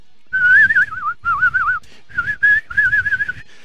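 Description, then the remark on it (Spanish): A human whistle with a strong, wavering vibrato, delivered in four or five short bursts around a steady mid-high pitch, fairly loud with no talking. “La vocecita de pito, de mierda, y el chiflido era con vibrato.”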